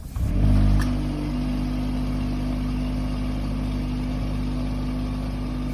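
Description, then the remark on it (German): A Polestar 1 car engine starts with a brief loud surge, then settles into a steady rumbling hum with strong low tones and a faint high whine; no one speaks. “werdet ihr wahrscheinlich wissen, dass es sich heute um den Polestar One dreht oder Polestar 1”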